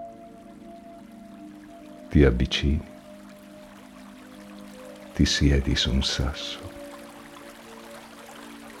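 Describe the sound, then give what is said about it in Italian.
A distant stream flows gently and steadily in a sunny, snow-covered mountain setting, a soft continuous wash of water, while a calm voice speaks twice over it in short phrases. “Un ruscello in lontananza scorre tranquillo.”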